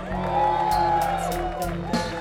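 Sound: crowd cheering and whooping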